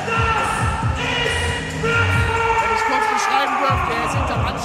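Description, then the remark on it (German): An arena announcer shouts into a microphone over the PA system as the players come onto the court, loud and echoing through a large hall, his amplified voice carrying continuously over the steady crowd noise. “Und wie ihr, glaube ich, hören könnt, der Hallensprecher ist wieder auf äh, ja, 180 unterwegs.”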